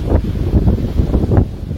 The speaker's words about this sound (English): oh, and there's the sound of the waves in the background.